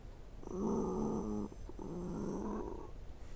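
Labored, rasping breaths from a wounded creature that has been stabbed through the chest with a sword: two long, harsh, growly draws, one after another with a brief catch between them, fairly loud, with no talking.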